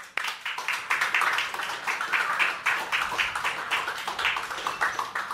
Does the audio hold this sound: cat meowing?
no